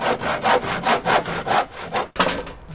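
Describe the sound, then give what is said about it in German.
A hand saw cuts through a painting in steady, rasping back-and-forth strokes, fairly loud, about two strokes per second, with a brief pause near the end before sawing resumes; an artist destroys his own painting, first struck with an axe, behind his house in Leipzig-Connewitz. “Ein erstes Bild fällt erst dem Beil, dann der Säge zum Opfer.”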